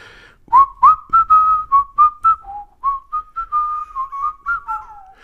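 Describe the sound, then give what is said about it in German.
Someone whistles a short, catchy advertising jingle, a quick run of about a dozen clear, bright notes with bouncy rhythm and small pitch steps, with no talking. “Und ich habe ähm, letzte Woche oder am Sonntag gepfiffen.”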